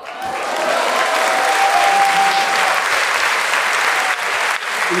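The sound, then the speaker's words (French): Sustained applause from a group, a dense steady wash of clapping that holds loud for about five seconds with a faint whistle-like tone threaded through the first half. “On, applaudit Victor”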